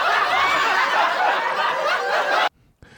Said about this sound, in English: Uh, I'll give you a couple of samples. Like, I'll go to a laugh track,